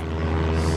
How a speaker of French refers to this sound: Mon avion est juste là. Putain, mais il fait du bruit cet avion, comment ça se fait C'est parce que c'est un avion à hélice. Hélice, hélice.